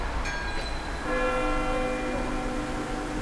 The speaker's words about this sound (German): Glocken läuten häufig. Kirche 1.